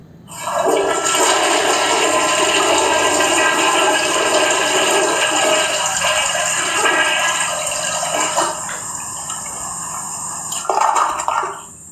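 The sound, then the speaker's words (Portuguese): A toilet at a workplace flushes with a loud, sustained rush of water that holds steady for several seconds, then tapers into gurgling and refilling sounds with a brief splashy burst near the end. No one speaks. “ele mandou aí a sua contribuição direto da firma, né, no, no momento de privacidade de tranquilidade, de reflexão.”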